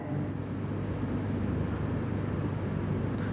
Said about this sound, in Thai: ขณะที่นั่งฟังผมได้ยินเสียงแอร์ไหม